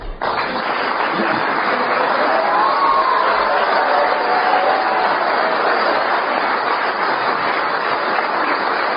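Sustained audience applause welcoming a 92-year-old doctor fills the whole stretch, a dense steady wash of clapping at an even loudness with a faint voice or cheer briefly rising through it.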